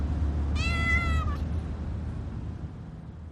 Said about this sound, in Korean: 뭔가가 속에서 터져나와 끄끄 울었고 소망이는 그 소리에 덩달아 야옹거렸다.